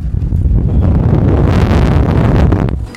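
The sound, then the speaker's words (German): A loud gust of wind buffets the microphone, a dense low rumble with roaring bursts lasting about three seconds before dropping off abruptly, with no one speaking. “da war jetzt mal kurz Wind.”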